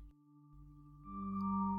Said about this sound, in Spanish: No, en serio, ¿quién era el teléfono?